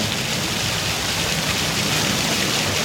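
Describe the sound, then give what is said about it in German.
A steady, dense, fairly loud hiss of rushing river water, sounding much like heavy rain pattering down, continuous throughout with no voices. “Und jetzt hat es eine Zeit lang ist es voll, in den Regen und dann geht es wieder in, Wellen, in die Wellen über.”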